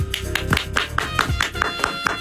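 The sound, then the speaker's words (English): A quick, steady run of sharp hand claps, roughly ten in a row at an even tempo, sounding crisp and fairly loud over a faint humming background. “Covenant claps times two, and I'll explain why”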